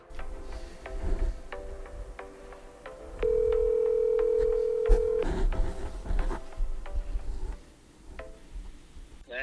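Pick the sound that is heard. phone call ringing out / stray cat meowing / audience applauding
phone call ringing out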